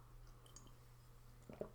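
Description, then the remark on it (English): Quiet mouth sounds of someone sipping water: a soft slurp and swallow near the end, over a steady low electrical hum, with no talking. “But, but, but, but, I got to take a sip of water.”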